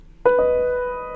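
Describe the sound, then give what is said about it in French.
A single synthesized note from an AudioThing experimental feedback-based multi-effect and feedback synth plugin strikes sharply and rings out as a steady, bright tone with layered overtones, fading slowly before a new attack begins at the very end. No voices. “Euh, expérimental euh, multi-effet et feedback synth.”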